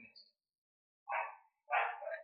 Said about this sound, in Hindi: हाँ पर हाँ मेरा कुत्ता जरूर भौंक रहा है पीछे